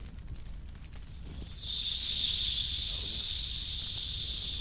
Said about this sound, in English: Yeah sounds like the steak I was cooking earlier on the grill, man. I'm telling you, yeah, we could blacken some sea bass on that.